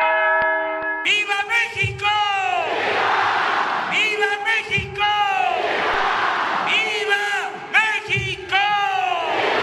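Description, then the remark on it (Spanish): A large crowd in a public square in Mexico roars in repeated swelling waves of shouted cheers for the independence cry on the night of 15 September, after a brief ringing tone of the Dolores bell rung from the National Palace; the mass of voices is loud and continuous. “La principal es donde el presidente de la República da el grito de independencia desde el Palacio Nacional y hace sonar la campana de Dolores.”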